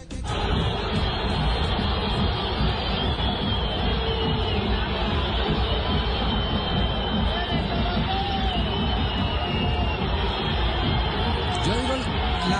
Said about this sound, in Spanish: reacciones del clásico, porque es el clásico silbido de los hinchas el día del hincha. En el Atanasio. En el Atanasio Girardot.